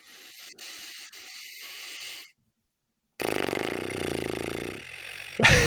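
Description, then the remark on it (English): A breathy hiss of air, a brief silence, then a sustained fluttering lip trill from a breathing exercise, buzzing for about two seconds, fairly loud, ending in a sharp burst. “breathing sitting up tall all the way down here in through the nose and then just relax your lips enough that you feel like they can shake”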